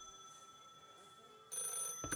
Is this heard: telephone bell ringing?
yes